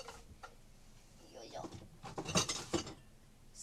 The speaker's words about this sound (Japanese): 水道の音を楽しみながらそしてちょっと今ある食器を片付けながらながらながら